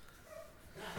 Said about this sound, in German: Das ist ja schon. Das ist nur ein Hund, okay.